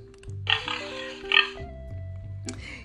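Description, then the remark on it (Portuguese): A pink piglet oinks in two short, snorting bursts, playing over a steady musical backing, with a brief squeal near the end. “Um lindo e rosado porquinho.”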